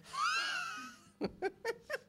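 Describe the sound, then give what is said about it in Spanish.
Asthmatic, wheezy breathing caused by asthma: one long, high, whistling breath that wavers in pitch, followed by four short, rhythmic gasping bursts. The wheezing is fairly loud, and no one is talking. “Yo estoy respirando así a veces porque me dio, asma.”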